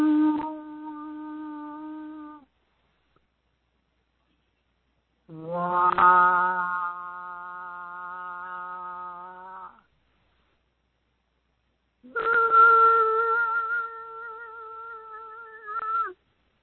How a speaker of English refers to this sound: So what I'm going to suggest you might want to consider is start toning. And toning is just letting your body release whatever sound it feels like releasing. So as an example, you could go